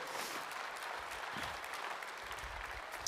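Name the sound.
audience applause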